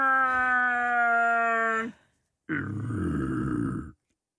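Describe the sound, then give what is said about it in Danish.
A voice imitates the roar of Chewbacca, the big hairy Star Wars creature: a loud, sustained howling cry, then after a short pause a rougher, gravelly growl, with no other sounds. “Chewbacca, det er den store hund. Den der helt behårede en, der siger...”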